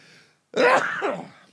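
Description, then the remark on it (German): A single sharp, loud sneeze brought on by spring pollen bursts out after a brief hush, its explosive onset trailing into a breathy, voiced tail. “Gesundheit.”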